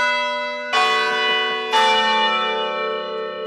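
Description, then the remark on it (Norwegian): A clock bell strikes quarter past the hour with two loud, ringing chimes about a second apart, each leaving a long, rich metallic hum that lingers and overlaps. No one speaks. “Nå er klokken kvart over.”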